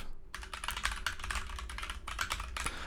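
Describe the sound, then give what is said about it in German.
Steady, fast typing on a compact mechanical keyboard with smooth, pre-lubricated linear switches, a dense run of crisp key clacks, with no talking. “Man verschreibt sich zwar ziemlich oft, wenn ich jetzt halt Sachen schreibe”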